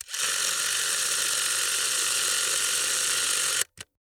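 A 1930s Pathé 9.5 mm spring-wound film camera, wound up by hand, whirs steadily and loudly for about three and a half seconds, then stops abruptly, followed by one brief mechanical click. No one speaks.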